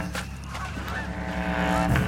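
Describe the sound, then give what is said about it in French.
A flock of ducks and geese flies out of a building, honking in a dense, overlapping chorus, loud, with a steady clamour of calls and no speech. “La volée d'oiseaux sortit du bâtiment comme un nuage énorme pépiant de joie.”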